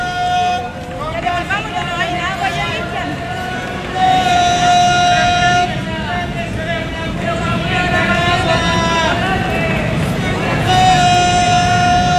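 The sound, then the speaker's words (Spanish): A street vendor's sustained, sing-song cry rings out repeatedly in long held tones over the steady hubbub of a busy crowd at Paseo Ahumada and Huérfanos in downtown Santiago. “Esto es Paseo Humada con huérfanos. Claro, es un sonido, pero inconfundible del, del centro de Santiago.”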